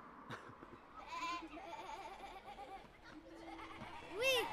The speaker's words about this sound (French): Le choix du mouton a été fait pour des raisons d'absence de nuisance, olfactives et sonore, pour les riverains. Race anglo-écossaise, le Scottish Blackface est un mouton connu pour son caractère paisible